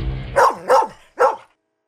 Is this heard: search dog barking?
yes